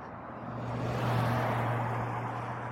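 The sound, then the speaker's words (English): A car passes by on a road, its broad tire-and-engine roar swelling to a peak midway and easing off, with a steady low engine hum underneath. No one speaks. “a lot of cars on this road.”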